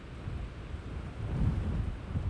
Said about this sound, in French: Moi j'étais tout content. Et du coup, la, prise de son, euh, j'étais content de faire une prise de son de vent.